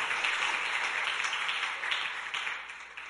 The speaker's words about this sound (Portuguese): Aplauda o Senhor nessa noite pela Sua palavra. Aleluia!